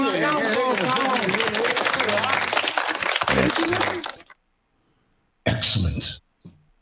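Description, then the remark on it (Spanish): Loud, busy theme music from the arcade version of Capcom's Ghosts 'n Goblins plays for about four seconds, then cuts off abruptly; after a pause, a short harsh burst of sound follows. “La versión de arcade es la que estamos escuchando.”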